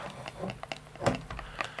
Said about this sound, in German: Ich öffne jetzt die Dose.